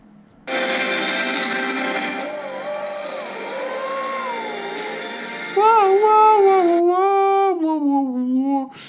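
A live concert song captured on a phone: a loud, dense wash of band sound with a sustained melody, then a singing voice rises clearly over the music and swells louder toward the end.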